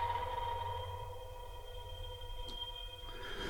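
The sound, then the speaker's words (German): Sustained electronic tones of a composition, sent from a smartphone over Bluetooth, ring through a resonant glass table, steady layered hums with faint shimmering overtones and a brief bright click near the end, quiet with no voices. “wenn Sie das Mikrofon mal an den Tisch halten, weil das ist der Glastisch, den Sie jetzt hören in der Resonanz. Ich übertrage meine Komposition auf das Glas des Tisches.”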